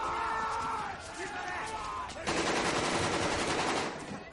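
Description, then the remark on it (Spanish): Rapid bursts of gunfire crackle in dense, rattling volleys, swelling into a loud, continuous machine-gun barrage halfway through, while a voice speaks over the first part. “Los dos se protegen del tiroteo junto a una viga.”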